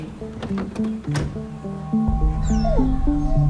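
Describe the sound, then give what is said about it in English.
A dog whimpers and lets out drawn-out, wavering howls, fairly steady. A low rumbling noise rises beneath it partway through. No one speaks. “the dog takes off with his tail between his legs.”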